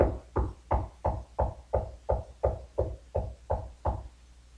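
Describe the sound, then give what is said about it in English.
A steady series of about a dozen knocks on a door, evenly spaced and moderately loud, each a dull thud with a brief ring, with no voices. “Behold, I stand at the door and knock.”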